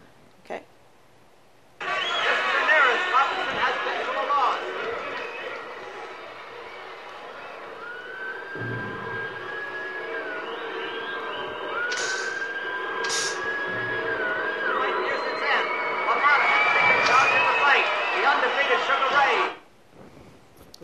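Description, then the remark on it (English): A sound effect in a slow-motion boxing film scene: a dense, sustained wash of sound carries a slowed-down, wavering whistle, cut through now and then by sharp, crystalline flashbulb pops, with a murmur of voices underneath. “Note again the interesting sound effect, a slowed down whistle intercut with crystalline sound of the flashbulbs.”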